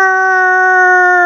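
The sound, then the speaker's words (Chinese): A voice imitates a rooster crowing: one loud, long, held cry at a steady pitch, sustained for over a second with nothing else around it. “就是有一天星期天放假，我睡到十点钟，然后外出买早餐，突然听到公鸡啼啊啊”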